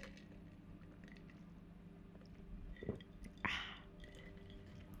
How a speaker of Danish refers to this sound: hvis du sidder og drikker noget, så tag lige en slurk med mig.